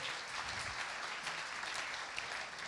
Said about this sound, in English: Let's give Ruth a clap and then.